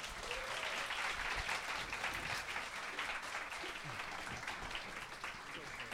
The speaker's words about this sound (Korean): 손미나 작가님 네, 박수로 맞이해 주세요.